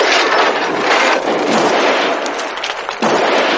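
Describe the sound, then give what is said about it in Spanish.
Loud, dense cannon fire rumbles in a near-continuous barrage of overlapping blasts, with one brief lull just before a final burst. No voices are heard. “General, nos disparan cañonazos chocolateados.”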